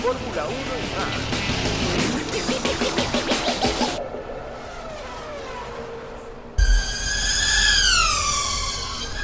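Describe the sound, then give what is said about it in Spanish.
The world's fastest camera drone buzzes loudly and steadily, then after a brief lull a thump gives way to a sharp, high motor whine that rises and falls in pitch. “Ese es el dron con cámara más rápido del mundo.”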